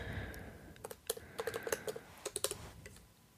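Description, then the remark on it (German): Quick, irregular clicks of typing a Google search on a computer keyboard, fairly clear, coming in short bursts with brief pauses between them and no talking. “Oh, Google ich gleich.”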